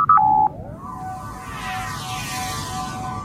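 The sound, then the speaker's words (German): A Star Trek food replicator effect from the starship Enterprise NCC-1701-D: a couple of quick electronic beeps, then a rising, shimmering whoosh of layered sci-fi tones that swells and hums steadily over a low rumble, with no talking. “Also was du gehört hast, war ein Food Replicator vom Raumschiff Enterprise.”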